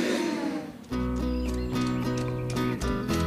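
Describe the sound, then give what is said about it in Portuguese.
A horse trots along a street, passing at the top of the street, at a steady pace, hooves clip-clopping in regular beats over a sustained, droning tonal backdrop. The clops are fairly loud. “escutava sua barriga roncar mais alto que o barulho do trote de um cavalo que passava no alto da rua.”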